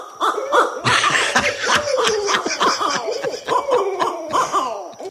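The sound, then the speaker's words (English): A person vocally imitates an owl trying to sound like a monkey, a rapid string of rising and falling hoots and whoops like a monkey chattering, loud, with some laughter mixed in. “Or or how about uh, you know I'm gonna imitate an owl trying to sound like a monkey.”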